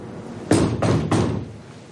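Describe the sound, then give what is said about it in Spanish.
A door being opened, heard as three sharp, evenly spaced clunks in quick succession, fairly loud, with no voices and a low hum beneath. “Abren la puerta y aparece otro hombre”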